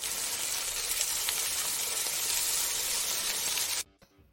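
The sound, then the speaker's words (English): Hash browns sizzle in a frying pan with a steady, bright crackling hiss that holds evenly for several seconds, then cuts off abruptly into near silence. “You're gonna you're gonna just put a video of some greasy ass hash browns”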